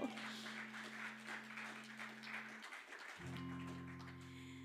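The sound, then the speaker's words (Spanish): A church audience applauds for Christ during a service, steadily, in a dense, continuous wash of clapping, with sustained keyboard or organ chords held underneath that briefly drop out and return. “Dale palmas a Cristo.”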